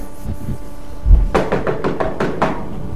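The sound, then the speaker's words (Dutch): A dull thump, then a quick, steady series of about seven knocks on a door, fairly loud, with no voices over them, as someone knocks because the doorbell does not work. “Hoe klop je dan?”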